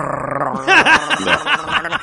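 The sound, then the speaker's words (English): A person growls like a dog in reaction to a list being read out, like getting too close to a strange dog: a run of rough, rising-and-falling voiced bursts, five or six in quick succession over about two seconds. “her list of things she wanted to be as a wife literally made … growl”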